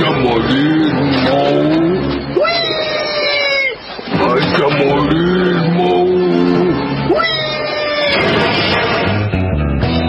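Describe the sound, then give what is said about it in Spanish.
Loud traffic with engines revving and two long, high squealing skids about five seconds apart, each swelling sharply then fading, over a constant rumble of passing cars. “bajar del colectivo esquivar a unos autos”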